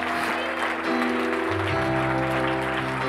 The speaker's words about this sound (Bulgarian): О, ако ръкопляскаш, ръкопляскай като някой, който ръкопляска с превъзходство.